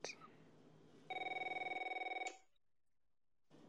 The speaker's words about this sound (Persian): تلفن آرش زنگ میخورد